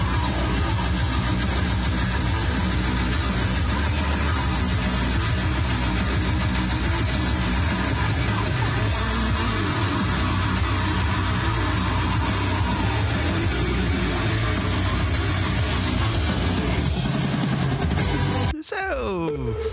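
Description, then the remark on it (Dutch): Loud, distorted heavy metal-style rock, a snippet of new material, plays continuously through a car radio, filmed from inside the car, sounding muffled and lo-fi under a low engine rumble, then cuts off abruptly near the end. “Klinkt wat crappy, want nogmaals, gefilmd vanuit een auto waar hij op de autoradio speelde.”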